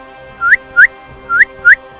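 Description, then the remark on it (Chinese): Snowball blows a whistle again: four sharp, high whistle blasts, each rising quickly in pitch, in two quick pairs over a soft, low background hum with no voices. “雪球看到人类的队伍已经乱了，再吹一次口哨。”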